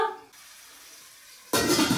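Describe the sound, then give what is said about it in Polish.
After a quiet moment, five stuffed rolls are placed into hot olive oil in a pot and a loud, steady sizzle suddenly starts and continues. “Będę już powoli kłaść teraz je do garnka.”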